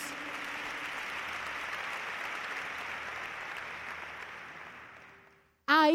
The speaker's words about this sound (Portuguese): Dá uma salva de palmas bem forte para Jesus.